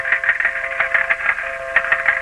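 A slot machine sound effect: bright electronic chimes and a steady tone pulse rapidly and continuously, dense and fairly loud, with no voices over it.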